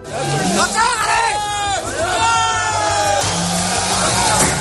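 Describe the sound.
Loud farmers' protest outside the European Parliament in Brussels, with more than 1,300 tractors and farmers from several countries, including Spain: many voices shouting and chanting together over a steady low engine rumble, with yells rising and falling throughout and a constant dense hubbub.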